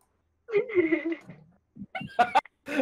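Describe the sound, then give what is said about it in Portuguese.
A person's voice imitates a cat's meow, one drawn-out, wavering mew, followed after a brief pause by a few short, choppy vocal bursts. “agora pega um ovo e faz miau.”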